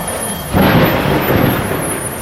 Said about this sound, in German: Was? In eurer Welt gibt es auch Gewitter?